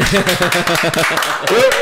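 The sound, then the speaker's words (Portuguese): Rhythmic hand claps from a small group, fairly loud and steady, mixed with voices cheering and calling out over them before a single high-pitched shout near the end, applauding the official announcement that the Ilha de Veneza will be delivered on 7 July. “É aplaudir!”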